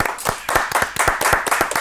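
Brisk, steady applause with sharp, evenly spaced claps at a quick rhythm, fairly loud throughout and heard alone without any talking.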